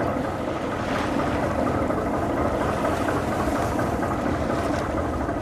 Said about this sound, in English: Both things are very necessary an engine for one and, and a freshwater maker. And they just have the most monotonous sounds.